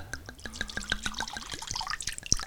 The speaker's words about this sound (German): Ja, also dekantieren ist ja quasi, man schüttet den groß in ein größeres Gefäß, mhm. das eine grobe Öffnung hat, damit er besser atmen kann.